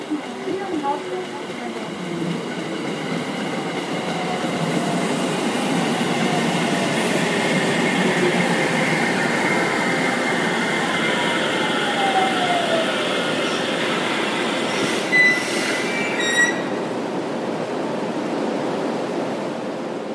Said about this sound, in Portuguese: trem ele vai ficar ali na estação um, dois minutinhos, às vezes um pouquinho mais.